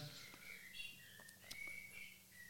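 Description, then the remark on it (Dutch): A bird clock chimes one o'clock with a recorded blackbird song: a few clear, fluting whistled phrases, fairly soft and steady, with no voices over it. “Dat is een mooie een klok. merel om één uur.”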